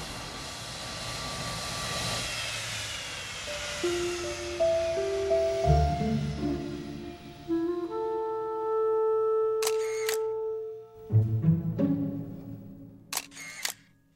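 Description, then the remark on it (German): Quick bursts of camera shutter clicks at an aircraft photo session, fired in short rapid runs, cut through the steady humming drone of aircraft engines whose pitch shifts slowly upward. No one speaks. “Klar, bei diesen Fotosessions stehen die Flugzeuge natürlich im Mittelpunkt.”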